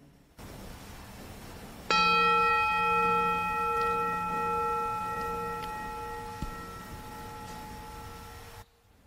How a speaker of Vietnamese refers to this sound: và các bạn nghe một tiếng chuông rồi chúng ta nghe tiếp nhé